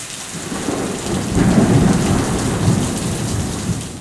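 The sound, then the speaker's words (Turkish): Heavy rain pours down steadily with a deep rumble of thunder rolling underneath, swelling louder in the middle before easing slightly. No voices are heard. “Birden üzerine bardaktan boşalırcasına yağmur yağmaya başlıyor.”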